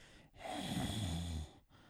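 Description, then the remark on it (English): A single breath right into the microphone, lasting about a second, with an airy hiss and a slight throaty rasp, then quiet. “So I'm like, nah, I'm just gonna do normal breathing.”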